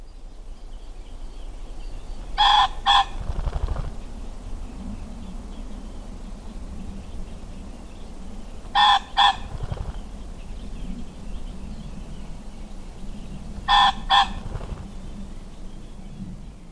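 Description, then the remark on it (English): A male common pheasant gives a harsh, far-carrying two-note 'kronk' crowing call three times at spaced intervals, each call followed by a brief muffled flurry of wing shaking, over a quiet outdoor background. “The male common pheasants far carrying harsh kronk, which usually comes with a loud flurry of wing shaking, is often heard from deep cover where the bird hides away from predators.”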